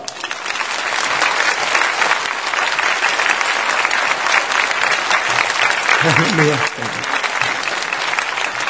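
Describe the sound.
Sustained, dense applause from a large church audience at Yewon Church, welcoming a guest pastor to the pulpit to preach, steady and loud for several seconds, with a brief voice and light laugh near the end as the clapping continues.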